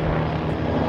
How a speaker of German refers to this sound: Ah, das ist ein Hubschrauber. Ein, ein, Heli.